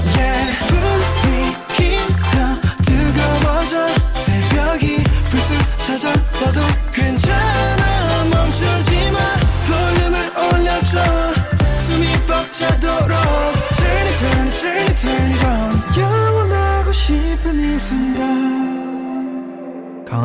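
A loud, upbeat K-pop song plays with dense instrumentation and a steady driving beat, then winds down and fades out over the final few seconds.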